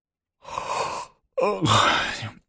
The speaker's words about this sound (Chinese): 见床头果然站着女皇，这才止住骂，挠了挠秃头，打着哈欠说